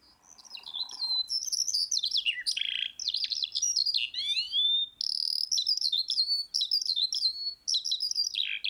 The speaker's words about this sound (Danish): Ja, det, altså, det, det, det kunne godt være en nattergal. Jeg er ikke helt sikker. Nej. Nej, eller altså, havesange måske. Nå, der var Forkert, det er en lærke. lærke? okay, jamen det er også ude på markerne jo.